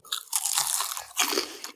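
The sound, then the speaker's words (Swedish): Loud crunching of homemade puffed cheese snacks with a golden-brown color, two bursts of crisp, crackly bites with a brief pause between them, no talking. “Smakar ju inte ostbågar. Alltså konsistensen är ju inte som ostbågar.”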